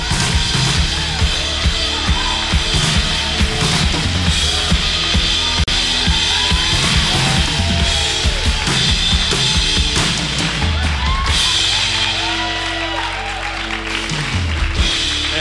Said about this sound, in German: Lass uns ganz herzlich und ganz warm willkommen heißen mit einem tosenden Applaus